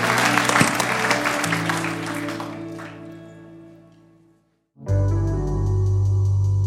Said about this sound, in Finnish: Annetaan isot aplodit Jeesukselle.